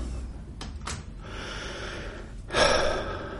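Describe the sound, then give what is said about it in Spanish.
Two quick, sharp intakes of breath, then a long, deep gasping inhale of fresh air by a person stepping out onto a balcony, swelling loudly before trailing off. No one speaks. “Siento que necesito un poco de aire. Estoy asfixiado.”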